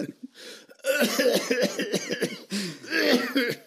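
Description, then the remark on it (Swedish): A voice imitates the raspy, throaty coughing of a chronically sick person, fairly loud: a couple of short hacks, then two long, rough bursts of repeated coughs with a brief pause between them. “alltså den hostningen är ju Ja, men lite bättre än dina, skulle jag vilja påstå.”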